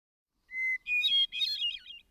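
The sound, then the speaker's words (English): A hermit thrush, called the swamp angel in the Adirondack region, sings a short, clear phrase: a pure sustained whistle followed by two quick bursts of fluting, ringing notes, heard alone with no other sounds. Its song is higher and wilder than a wood thrush's. “The cast of its song is very much like that of the wood thrush, and a good observer might easily confound the two.”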